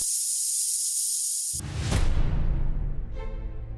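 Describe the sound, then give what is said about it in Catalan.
Steady high-pitched fizzing hiss of an effervescent tablet dissolving, then a sudden fuller rush of bubbling with a low rumble underneath that gradually thins out. No voices. “Comprimits efervescents. Històries que es dissolen en dos minuts.”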